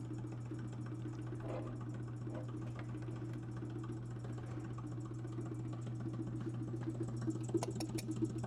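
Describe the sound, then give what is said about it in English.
A steady mechanical motor hum drones continuously, with a strong low tone and faint rattling pulses, from a vacuum pump running during an experiment, with no voices. “haven't got a very good vacuum.”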